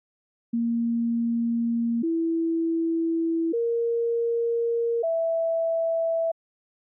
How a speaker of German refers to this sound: Wir haben daraus ein akustisches Schaubild generiert, also ihre Bewertungen in Tonhöhen umgerechnet. Je höher der Ton, desto besser der Wert. Lebenszufriedenheit zwischen 1965 und 69